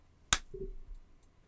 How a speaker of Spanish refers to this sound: Creo que mi aplauso estuvo bien chafa.